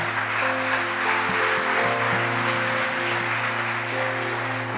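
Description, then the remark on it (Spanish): A crowd applauds steadily for several seconds as applause for God, a dense wash of many hands clapping at a loud, even level, with a sustained low musical drone humming underneath. “¿Qué tal si comenzamos em, este momento de alimento, de mensaje, con un aplauso para Dios por todo lo bueno que ha sido?”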